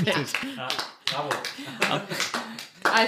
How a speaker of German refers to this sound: Wir klatschen für dich.